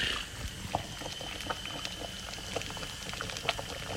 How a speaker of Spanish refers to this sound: Se les quita la cáscara. Obvio con este le quitamos toda la cáscara a las papas. Luego se ponen las papas a hervir.